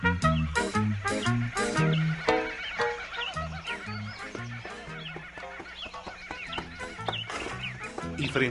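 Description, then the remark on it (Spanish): A horse whinnies as it passes by, among a busy mix of other animal-like sounds, with tonal calls and short bursts layered closely together at a fairly steady, moderate loudness throughout. “a ellos pasó un caballo.”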